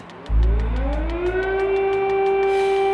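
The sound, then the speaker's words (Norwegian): An air raid siren wails through quiet streets in Ukraine as Russian forces near Kyiv; it rises in pitch and settles into a loud, sustained wail, with a steady low rumble beneath and regular faint ticks across the top. “Og med jevne mellomrom kunne folk høre flyalarmen skjære gjennom de stille gatene.”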